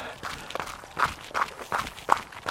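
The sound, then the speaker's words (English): Steady footsteps of a runner taking a walk break outdoors over fields a little outside of town. The soft crunching steps fall in an even rhythm of about three per second, with faint skylark chirps drifting in the background. “So I took a bit of a walk break there, listening to a, a skylark over the fields where I run now.”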